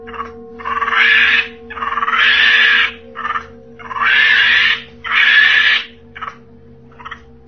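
A monkey lets out four loud, harsh screeching calls in long bursts with short pauses between, followed by a few brief softer yelps, all over a steady low hum. No one speaks.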